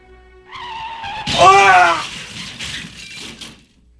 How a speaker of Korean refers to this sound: 드러내놓고 표현조차 할 수 없는 슬픔 속에 허우적거리며 걸어오던 저는 그만 교통사고를 당했습니다.